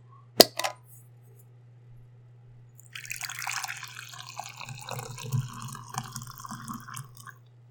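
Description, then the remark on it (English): Two quick, sharp clinks of a cup, then a pause before liquid splashes and trickles in a cup for about four seconds, over a steady low hum, with no talking. “Oh, is it that cup? Yes. Okay. Uh, th- hopefully, this is going to be our opening sound.”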